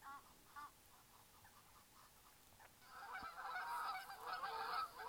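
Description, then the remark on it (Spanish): Nature sounds from the Spa for Mind, Heart and Soul channel: a few scattered goose honks at first, then a dense, overlapping chorus of geese honking grows louder and continues steadily over a soft outdoor background, with no one speaking. “Acompaño la lectura con los sonidos de la naturaleza del canal Spa for Mind, Heart and Soul.”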